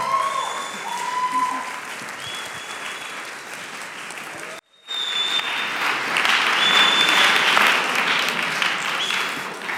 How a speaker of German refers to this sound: Ja, vielen Dank. Ist immer gefährlich, wenn man vorher klatscht.